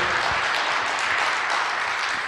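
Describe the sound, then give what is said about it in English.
An audience gives the Lord a shout of praise, applauding steadily, with scattered shouts of praise mixed into the dense, continuous wash of clapping from start to finish. “Let's give the Lord a shout of praise for his presence in this place.”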